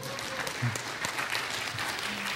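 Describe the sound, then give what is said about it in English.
A crowd applauds steadily for a young woman, one of their high school leaders, invited up to share her story; many hands clap in a dense, even wash of sound that holds at the same loudness throughout, with no voices standing out. “Hey, you, can clap for her.”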